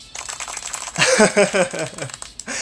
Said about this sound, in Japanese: いやありがとうございますありがとうございますいやもう本当にあのー、あれだマイク越しから拍手がいっぱい聞こえる